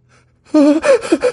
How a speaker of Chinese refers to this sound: 他吓得叫了出来，用力闭上眼睛，同时狠狠的踩下了刹车。